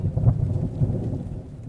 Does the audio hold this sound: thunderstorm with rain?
yes